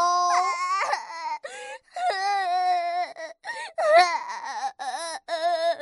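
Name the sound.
crying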